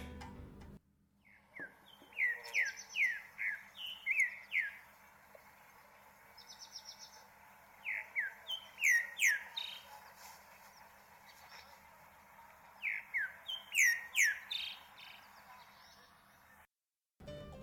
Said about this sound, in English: The bird for today is the olive thrush.